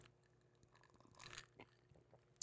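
Quiet sips of a canned SToK coffee drink: soft slurping and wet mouth noises with a couple of small clicks and a swallow, heard alone with no talking.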